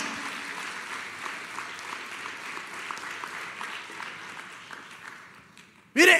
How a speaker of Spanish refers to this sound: Démosle fuerte el aplauso, no, no la mitad, lo fuerte, porque Él es bueno.